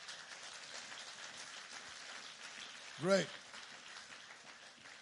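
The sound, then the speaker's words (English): An audience in a church claps in a dense, uneven patter that runs steadily through the whole stretch, with one voice briefly speaking over it near the middle. “And now let's get the church clapping.”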